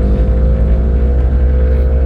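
motorcycle engine passing outside

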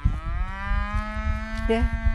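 cows mooing

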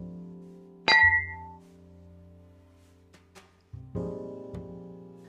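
glasses clinking

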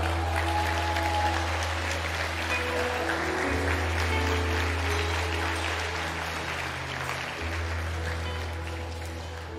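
audience applauding

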